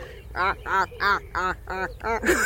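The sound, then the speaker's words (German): A drake duck quacks six times in a quick, steady series, each call short, nasal and fairly loud, with a brief rustle at the end. “Aber es war wirklich eine Ente. Ein Erpel, um genau zu sein.”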